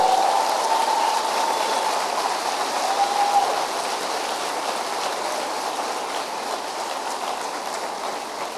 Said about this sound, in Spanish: Dale un aplauso fuerte al Señor, por favor.